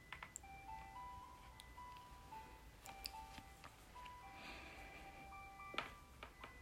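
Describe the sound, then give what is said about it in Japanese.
A matryomin theremin plays a slow, simple melody of smooth electronic tones that step between pitches, fairly soft over a hissy background with a few scattered clicks and knocks. “はいこれがマトリョミンですね”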